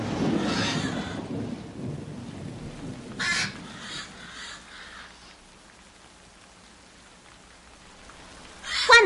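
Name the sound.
rain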